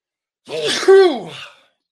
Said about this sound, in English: I got a sneeze coming on too.